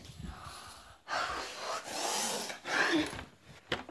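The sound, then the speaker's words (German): An elephant breathes in and out: two long, loud, airy rushes of breath, a drawn-in inhale followed by a heavy exhale, with a short snuffle at the end and no talking. “Der Elefant hat sich kurz atmete, atmete ein und atmete aus.”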